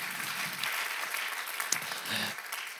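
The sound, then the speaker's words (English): An audience applauds the speaker's wife steadily, a dense crackle of many hands clapping at an even, fairly loud level across the whole stretch, with a faint voice briefly audible beneath it. “Let's give my wife a round of applause.”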